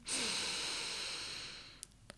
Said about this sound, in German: Wir atmen tief ein